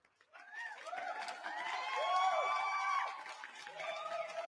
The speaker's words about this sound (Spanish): Señores y señores, esto merece unos aplausos.